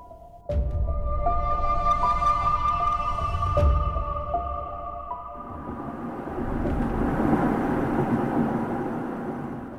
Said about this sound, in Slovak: Sme v aute a inak celkom tiché auto, takže čo to je nejaký hybrid?